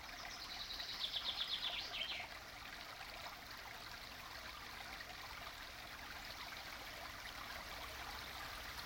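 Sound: mountain stream flowing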